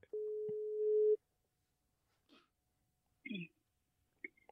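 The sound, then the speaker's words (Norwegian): A single steady telephone ringback tone hums for about a second as a call is placed to someone living in the Netherlands, followed by silence, a few soft clicks and faint bits of sound as the call connects. “Jeg ringer nå.”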